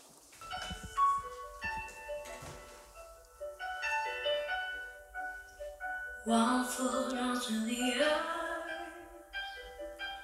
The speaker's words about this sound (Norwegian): Kan jeg få høre noen synger? Det kan du helt sikkert.